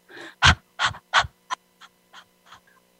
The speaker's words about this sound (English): you do what's called breath of fire and so it's a very rapid breath it's very similar to um, to like a dog panting